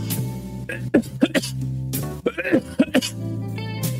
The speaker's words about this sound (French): Je suis un peu pris de la gorge, donc c'est chiant quand je me mets à tousser, mais ça devrait aller.